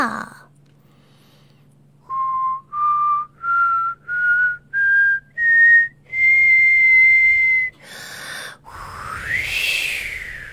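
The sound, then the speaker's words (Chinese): Whistling rises in six short, evenly spaced steps, each note higher than the last, then holds one long high note before giving way to breathy, rushing blowing sounds like wind. “嗯嗯，秋天到，吹口哨。”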